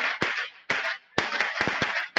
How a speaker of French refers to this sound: Alors, on l'entend, vous êtes encore dans la manifestation où il y a des, des pétards ou, quelque chose. C'est difficile de vous entendre.